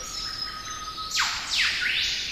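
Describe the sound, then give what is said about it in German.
An Eastern Whipbird gives its whip-crack call: a thin sustained whistle breaks into loud, sharply sweeping whip notes, with a fainter answering sweep close behind. No one speaks. “Der impulsartige Ruf des Eastern Whipbirds erinnert an einen Peitschenknall,”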